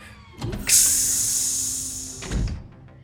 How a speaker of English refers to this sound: Circling down through the clouds, pulsing with colorful light, it came to a low hover over the street and the exit door hissed open.